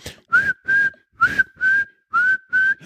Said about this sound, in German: und so menschliche Gegner pfeifen ständig. Dieses Pfeifen macht mich wahnsinnig.